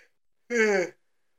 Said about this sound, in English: Hey, I'm sorry. I'm sorry for the yawn.